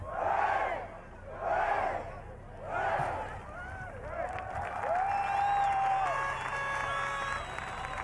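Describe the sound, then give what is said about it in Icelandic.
A large crowd at Arnarhóll in central Reykjavík, Iceland, cheers outdoors in 2008 while welcoming home the Icelandic national handball team, first with three loud rhythmic chanted shouts, then a sustained roar of cheering laced with shrill whistles and steady horn-like tones. “Fagnarópin minna óneitanlega á kappróður.”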